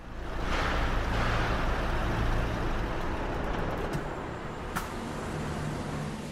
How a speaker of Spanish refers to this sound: El autobús ha parado en una gasolinera.